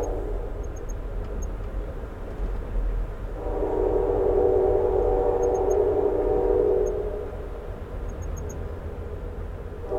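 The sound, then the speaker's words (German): A passenger train horn sounds one long, steady blast lasting a few seconds, heard aboard a passenger train travelling at night through countryside in America, rising out of a constant low rumble of rolling wheels and fading back into it. “An das Tuten gewöhnt man sich irgendwann.”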